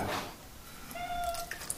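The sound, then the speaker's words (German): A cat named Mia, about to be fed, gives a single drawn-out meow, a steady tonal cry with rising harmonics that fades at the end, over a soft background hiss with a couple of faint clicks. “Jetzt ist erstmal die Katze dran.”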